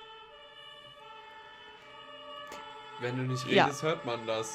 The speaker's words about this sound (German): hier fährt gerade nämlich komplett Feuerwehr, Polizei, Krankenwagen.